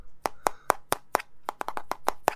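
About a dozen sharp, hollow taps on a cheap red plastic handheld game console, fairly loud, coming in an uneven rhythm that quickens toward the end, with no talking.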